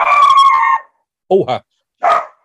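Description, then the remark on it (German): A dog barks: one long, drawn-out bark, then a person's brief exclamation, followed by a second, shorter bark after a pause. “Das ist der Hund.”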